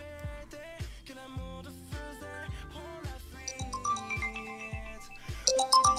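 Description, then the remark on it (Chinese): A mobile phone ringtone plays on its own for an incoming call: a bouncy electronic melody over a steady, pulsing bass line, with bright chiming notes that grow louder near the end. “突然呢，他的手机铃声就响了，啊，大概是这么响的。”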